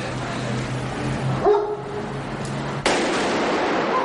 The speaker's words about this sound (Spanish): Yul escucha el disparo.